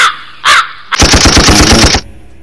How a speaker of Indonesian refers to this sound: gun atau tembakan